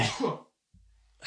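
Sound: sneeze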